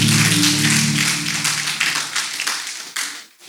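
An audience applauds the Lord together at a church service, a dense, steady wash of many hands clapping over a low sustained musical hum, thinning out and fading in the last second.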